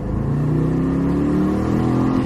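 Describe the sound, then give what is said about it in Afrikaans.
The supercharged engine of an XJR575 car pulls hard under acceleration, a steady, loud mechanical drone whose pitch climbs smoothly through the gears for a couple of seconds, continuous with no voices. “wonderlike van sy druk aangejaagde masjien is dat haar net eenvoudig teen enige revolusies hoop en krag is, sonder 'n tikkie traagheid soos dikwels die geval met 'n turbo-aanjaer.”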